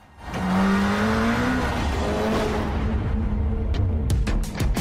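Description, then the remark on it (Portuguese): A sports car engine with a double rear spoiler roars up loudly, its pitch climbing as it accelerates, then holds a steady throaty drone with a few sharp clicks near the end. “Um carro que só falta voar. Será mesmo?”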